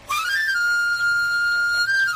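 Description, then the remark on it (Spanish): A knife grinder's whistle: a bright, reedy tone glides quickly upward, then holds one steady high note for about two seconds, loud and alone with no talking. “Y el más auténtico de todos.”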